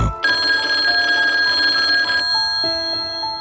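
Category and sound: household object, telephone ringing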